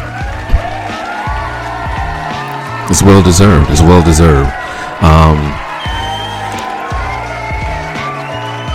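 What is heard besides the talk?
round of applause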